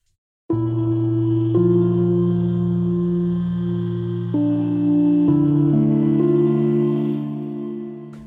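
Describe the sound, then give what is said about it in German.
A dry, percussive synthesizer sound with its echo effect switched off, playing a few held, harmonically rich notes that shift pitch every second or so, with no trailing repeats, fairly loud and alone, fading at the end. “Wir haben einen perkussiven Sound und jetzt habe ich hier die Echos angemacht. Momentan sind sie erstmal aus, dann klingen die so.”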